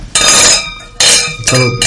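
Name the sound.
glasses clinking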